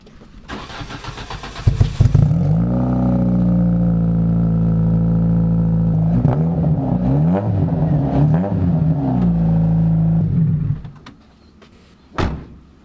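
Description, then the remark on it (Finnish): A rally car engine from a racing game cranks to life, settles into a steady, loud rumble, then revs up and down in quick bursts before cutting out, followed by a sharp click. “No, saisiko tästä äänet tästä Kyllä, pelistä? Katsotaan, miltä se kuulostaa.”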